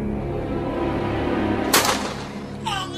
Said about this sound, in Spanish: Recibe un disparo en el pecho.